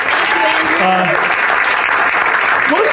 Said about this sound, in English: Give him a round of applause because he's awesome.